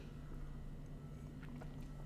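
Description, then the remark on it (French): A quiet sip of a drink: soft wet mouth and swallowing sounds near the end, over a low steady hum with no talking. “Je sais pas pourquoi, excusez, petit break de gorgée.”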